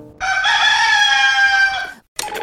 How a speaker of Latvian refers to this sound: Gailis ļoti izplatīts mājputnis, savulaik iedziedājis radio rīta vingrošanas signālu.